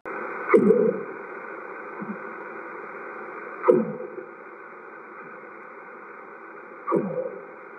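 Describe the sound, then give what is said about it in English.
A northern right whale calls three times, a few seconds apart, each a short low sweeping moan rising out of a steady underwater hiss. No one speaks. “It's a northern right whale.”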